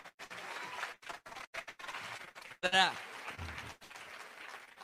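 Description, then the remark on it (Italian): An audience breaks into sustained applause as the director general is invited up, dense clapping that carries on for several seconds with a brief, shrill cheer or whistle rising out of it partway through. “Un applauso.”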